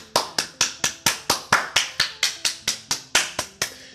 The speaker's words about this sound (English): First and foremost, fantasy baseball is over. Round of applause.